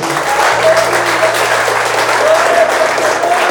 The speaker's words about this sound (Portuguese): Quem crê, aplauda o Senhor nesta manhã.